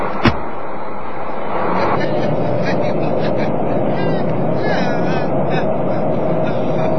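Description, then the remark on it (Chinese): A sharp thump like a car door shutting, then a steady, loud engine rumble as a car pulls away and keeps driving, with voices talking over the noise. “哎呀，你这老干，没坐过汽车呀？”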